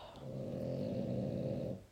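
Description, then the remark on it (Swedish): A female dog named Shorty snores in one long, rumbling breath that lasts nearly two seconds, fairly loud, then trails off at the end. “Ja, ni hör ju min hund här i bakgrunden.”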